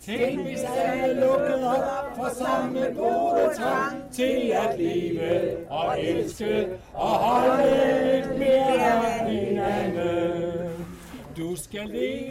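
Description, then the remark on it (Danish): A group of voices sings a song together on a terrace in Christiania, Copenhagen, on the evening of a 50th birthday party, loud and steady, with sustained melodic lines and only brief pauses between phrases, like a casual party sing-along. “den sang, man kan høre os synge her på terrassen”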